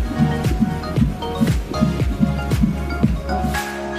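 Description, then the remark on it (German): A baby's fetal heartbeat on an ultrasound monitor during pregnancy: fast, steady whooshing thumps, about two per second, with a muffled, watery low rumble between beats, fairly loud with no voices. “Das ist der Herzschlag Ihres Babys.”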